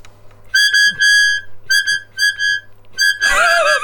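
A soprano keyboard harmonica plays bright, high sustained notes in a few short phrases with brief gaps, fairly loud, ending in a louder, cluttered burst of sound.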